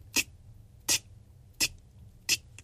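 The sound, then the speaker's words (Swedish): An electricity meter in an electrical cabinet ticks slowly: four crisp, sharp clicks spaced evenly about two-thirds of a second apart, fairly quiet, with nothing else but a faint low hum underneath. “Och det bästa av allt, det är att jag hör ett tick från elskåpet.”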